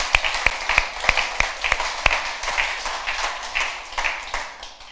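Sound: audience applause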